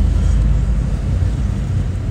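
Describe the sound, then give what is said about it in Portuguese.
A steady, loud low-pitched rumble of a car driving through city traffic, with continuous engine and road noise and no talking over it, like riding inside a vehicle moving through traffic. “deixa eu, deixa eu pensar aqui no trânsito, peraí.”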